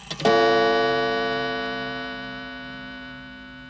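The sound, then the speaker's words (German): A single gong struck once, ringing out with a rich, sustained metallic tone that slowly decays over several seconds, heard alone with no talking. “Es gibt jetzt wieder einen Gong.”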